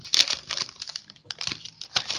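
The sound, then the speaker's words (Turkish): Paper rustles and crinkles in quick, irregular bursts as someone shuffles through sheets searching for their paper and pen, with no one speaking. “Nerede lan benim kağıdım kalemim a**ayım?”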